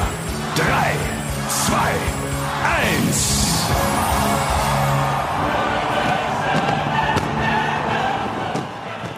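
A big outdoor crowd roars and cheers continuously, with rising whistling streaks and sharp bangs scattered through, like fireworks going off over a packed celebration.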